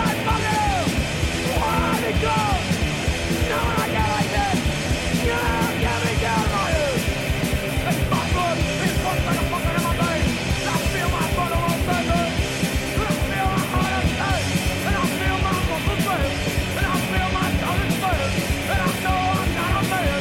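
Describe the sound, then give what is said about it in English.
A loud, fast punk rock song plays throughout, with shouted, yelled vocals over driving drums and dense distorted guitars, the whole band thick and steady for the full stretch. “our next song is the uh, the second title track, …”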